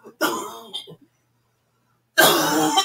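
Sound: coughing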